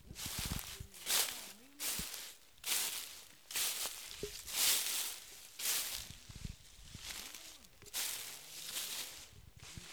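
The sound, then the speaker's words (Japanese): Footsteps crunching and rustling through dry, red autumn maple leaves in a steady walking rhythm, fairly loud, with a voice murmuring faintly in the background. “紅葉がすごいいいよねこの足音ね。”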